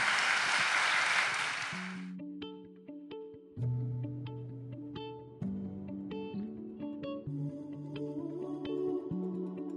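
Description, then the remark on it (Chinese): An audience gives a warm, loud burst of applause offered to God after testimonies were shared. It lasts about two seconds, then stops abruptly and gives way to soft, steady keyboard music with sustained low notes. “那我们用一个热烈的掌声献给我们的神”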